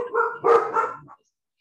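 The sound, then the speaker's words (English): A short burst of several dogs barking at once in a false alarm, loud, with overlapping yaps packed into about a second before it cuts to silence. “Everyone just decided to start shouting.”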